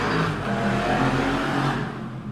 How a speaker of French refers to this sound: Désolé. Désolé pour les motos.